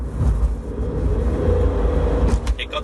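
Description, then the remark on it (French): The engine of a Toyota C-HR self-charging hybrid car starts up as the car accelerates, adding a faint humming tone over a steady, loud low rumble of road noise throughout the few seconds. “Là, vous l'avez senti, le moteur se met en route.”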